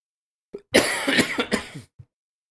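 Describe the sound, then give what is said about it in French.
A harsh coughing fit: a short hack, then a burst of several rapid raspy coughs running together, ending with one small cough. No talking. “C'est le podcast des gens qui toussent.”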